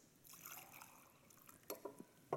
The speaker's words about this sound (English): If I want to fill up this glass, I can pour some water in it. So I can just go like this.